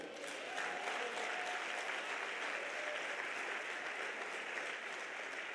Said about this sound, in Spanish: ¿Alguien puede dar un aplauso por eso?